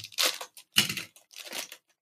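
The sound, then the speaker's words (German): Red gift packaging being torn open in three quick, noisy bursts of ripping and crinkling paper, each lasting about half a second, with brief pauses between and no voices. “Ah, eine rote Verpackung.”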